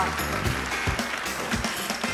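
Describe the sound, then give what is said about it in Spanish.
Steady audience applause for a birthday fills the short clip, a dense wash of many hands clapping at an even, sustained level without any clear pauses. “¡Feliz cumpleaños! vamos, un aplauso.”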